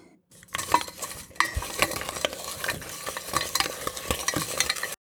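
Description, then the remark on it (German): A spoon scrapes and stirs steadily in a pot of melting chocolate and butter on a stove at medium heat, with repeated clinks against the side over a soft bubbling sizzle, moderately loud, no voices. “Das Ganze könnt ihr dann schmelzen und zwischendurch immer wieder umrühren.”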